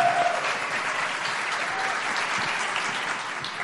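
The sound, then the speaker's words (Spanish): An audience at a Foro Semana event on the future of artificial intelligence in Colombia claps steadily, a dense, continuous wash of many hands at an even, fairly loud level, with no voices standing out for the whole few seconds. “Y no es mentira, les vamos a pedir que por favor hagan un ruidito, por favor, todos, un aplauso.”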